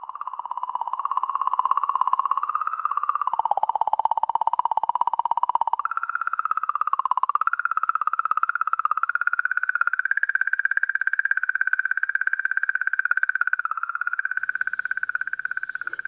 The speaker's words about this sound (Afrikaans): luister net na hierdie klank wat gemaak word deur die komeet Cheryomov Girasimenko